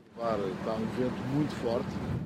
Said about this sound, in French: Nous pouvons voir qu'il y a un vent très fort ici. Ça a été le plus grand ennemi de ceux qui luttent contre les incendies de forêt.